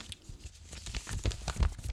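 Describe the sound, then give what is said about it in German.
A printed sheet of paper rustles and crinkles in a series of quick, irregular scrapes and crackles, fairly quiet, with no one speaking over it. “Ich habe hier nämlich ein Stück Papier vor mir.”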